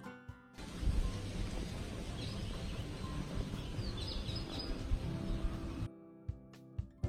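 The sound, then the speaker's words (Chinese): Birds chirp in scattered, high-pitched bursts over a steady wash of wind and rustling leaves that stops abruptly near the end, leaving a few faint clicks. Heard in the early morning from the balcony of a treehouse. “我听到了树叶的沙沙声，鸟儿的叫声，掠过耳边的风声，美好的不要不要的。”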